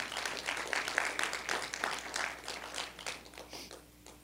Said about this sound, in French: Est-ce qu'on peut applaudir ces gens, ces anciens dans l'Église?